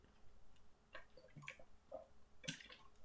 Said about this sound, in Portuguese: eu vou beber água outra vez, portanto, dois segundos.